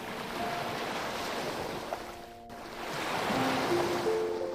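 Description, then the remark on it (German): Ocean waves wash onto a beach in a steady, full rush of surf that briefly ebbs and then swells again, with faint tonal notes drifting above the noise. “Wie das Hin und Her der Wellen.”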